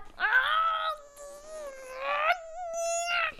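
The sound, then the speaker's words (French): A person grumbles, letting out a drawn-out, whiny moan: three sustained, wavering vocal groans in a row, fairly loud, with no actual words. “Bon, j'avoue, c'est moi qui râle. Un tout petit peu.”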